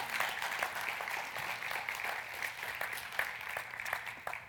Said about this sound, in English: Thank you guys. Give them a clap as they take a seat.